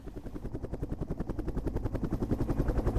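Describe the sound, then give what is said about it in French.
A patrol helicopter far off glides between rooftops, hovers a moment, then darts away in a curved flight; its rotor chops in a rapid, steady thumping rhythm, growing somewhat louder over a few seconds, with no voices present. “Au loin, un hélicoptère glissa entre les toits, plana un moment tel une mouche bleue, puis repartit comme une flèche dans un vol courbe.”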